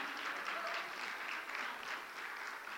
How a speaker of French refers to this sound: On peut l'applaudir.